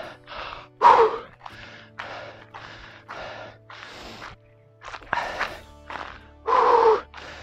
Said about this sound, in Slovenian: Tako ritmičen teh človeka, kar zadiha, ker ne traja samo 10 sekund, ampak malo več. Namreč po 15 sekundah telo že začne hlastati za zrakom.